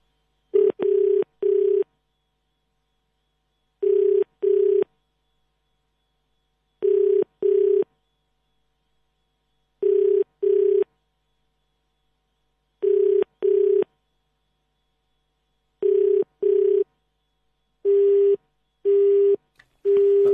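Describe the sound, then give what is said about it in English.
A telephone line, calling a person in Port Elizabeth who does not answer, sounds in repeated pairs of short, steady electronic tones spaced evenly apart, like a busy signal, with a few quicker tone bursts toward the end as if dialing. No voices. “And let's see if we can raise him and find out how he's celebrating today.”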